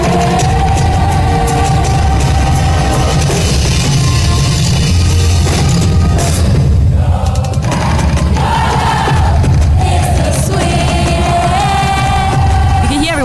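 A loud concert crowd sings along in a dense, sustained roar, the many voices carrying a melody together, with occasional shouts and cheers rising throughout.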